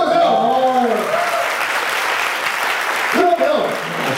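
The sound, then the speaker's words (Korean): An audience claps in a steady, dense burst of applause that fills the whole stretch, with a voice briefly heard over it at the start and again near the end. “어떻게 박수!”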